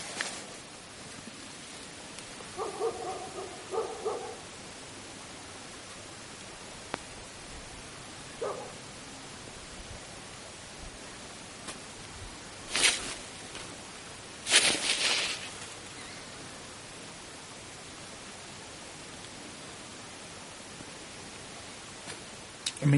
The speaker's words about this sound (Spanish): No, he escuchado. Joder, pasos clarísimos, ¿no? Otra vez, ¿eh?